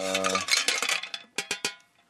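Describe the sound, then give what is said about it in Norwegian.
Ice cubes clink and rattle in a cocktail mixing glass while a Christmas cocktail is being made, a busy cluster of bright, glassy knocks followed by three or four sharper separate clinks that fade out. No one speaks. “Så har jeg litt isbiter oppi mikse”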